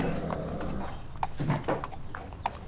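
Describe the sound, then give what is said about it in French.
Horses' hooves clip-clop in an irregular series of sharp knocks as the horses climb one after another into a club's truck, over a steady low rumble of background noise, with no one talking. “Depuis son paddock, elle les regardait partir chaque dimanche pour les terrains de concours épiques et monter à la queue leu dans le camion du club.”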